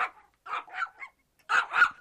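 A dog gives a series of soft, hesitant barks, about six short yips in two quick clusters with a brief pause between, fairly quiet, with no talking, as it barks timidly beside a rooster eating its food in a yard.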